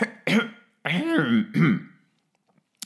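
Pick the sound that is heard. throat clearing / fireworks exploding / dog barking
throat clearing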